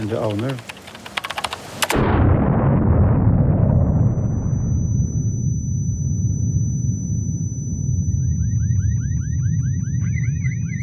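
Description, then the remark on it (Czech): A white delivery van explodes in front of the main building in the government quarter of central Oslo: a sudden loud blast after some light clattering, rolling into a long, fading rumble, with a steady high ringing tone and warbling car alarms rising near the end. “Bílá dodávka exploduje – Výbuch nepřežije 8 lidí.”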